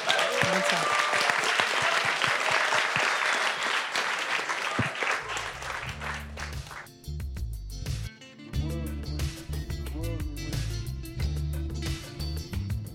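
A big crowd at a La Recyclerie discussion evening breaks into loud, dense applause for the evening's host, the clapping gradually thinning out as upbeat music with a steady bass pulse rises and takes over.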